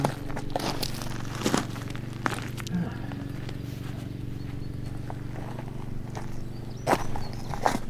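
Footsteps of people walking outdoors by a horse enclosure holding about 20 horses, a series of irregular crunching steps over a steady low rumble, with no one speaking.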